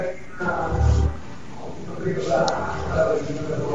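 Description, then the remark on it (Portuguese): A car passes by with a low, rumbling engine swell that peaks early and fades while people talk over it. “Tá passando tô... um carro aí?”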